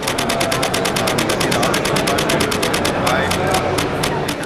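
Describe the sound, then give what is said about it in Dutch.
A mirrorless camera shutter fires in Burst Mode High, a fast, steady stream of crisp mechanical clicks, roughly seven per second, repeating for several seconds over a faint background hum. “We gaan luisteren naar de Burst Mode High.”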